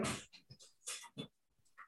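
A dog whimpers in a quick series of short, breathy bursts with small gaps between them, some tinged with a thin, whiny tone. No one speaks.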